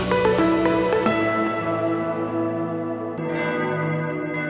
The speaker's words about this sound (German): Die Glocken auf dem Friedhof in Grimma rufen zur Beisetzung eines Verstorbenen. Es ist ein sonniger Morgen im November. Der fast 500 Jahre alte Gottesacker ruht in stiller Schönheit.